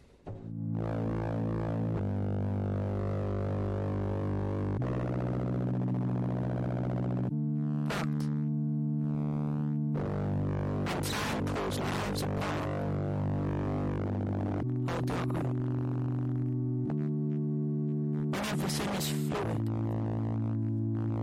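An electronic music intro played on Radio Actoral for Radio Grenouille, of pure, sustained sine-like tones that shift pitch in steady blocks every few seconds, punctuated by bright bursts of noisy, glitchy texture. Loud, with no voices.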